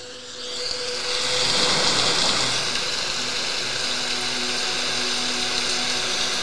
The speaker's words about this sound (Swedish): här har jag då valt eh, regn och åska. Mm. För jag går igång på det.